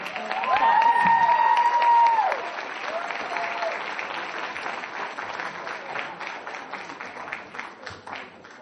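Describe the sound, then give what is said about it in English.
An audience bursts into sustained applause, a dense, steady patter of many hands clapping for several seconds, with a loud whistle and cheering riding over it at the start before the clapping gradually thins. “So please, I called you, big round of applause.”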